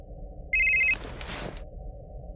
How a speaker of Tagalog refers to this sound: Nanggagaling ang ringtone sa bag kong itim. Kinuha ko ang cellphone sa loob nito. Nangilabot ako nang makita kong may tumatawag sa cellphone